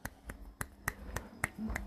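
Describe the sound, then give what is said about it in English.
A steady series of sharp finger snaps made in place of clapping during a poetry performance, seven crisp clicks spaced roughly evenly about a third of a second apart, with a faint low hum at the end and no talking. “I'm just gonna snap my fingers for now. I can't clap.”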